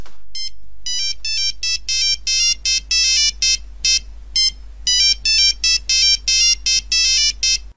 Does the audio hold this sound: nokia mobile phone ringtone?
yes